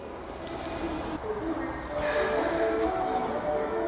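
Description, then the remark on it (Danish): Underground metro station ambience at Namba station in Japan: a steady, fairly loud rumble and hiss of a train, with humming electric tones rising and shifting throughout, continuous with no pauses. “Nu er jeg rykket ned øh, fra et normalt tog, og nu rykket ned i øh, i undergrundsbanen i metroen.”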